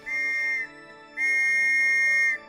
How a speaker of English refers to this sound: yeah, and then he grabs his super duper police whistle